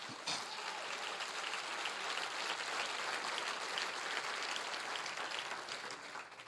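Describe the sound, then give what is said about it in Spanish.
A church audience breaks into sustained applause, a dense wash of many hands clapping at once that stays steady and fairly loud throughout, with no voices standing out. “Acá, ah, man, iglesia, si ese es el aplauso.”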